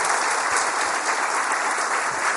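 Steady, dense applause from an audience fills the whole moment, many hands clapping at once in a continuous, even wash with no voices standing out.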